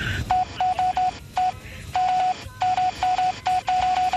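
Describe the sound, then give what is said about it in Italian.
Telephone keypad DTMF tones dial a phone number as a long string of short, clear beeps in quick clusters with brief pauses, fairly loud over a faint background hiss. “E ti rilascio il mio numero, devi fare 001.”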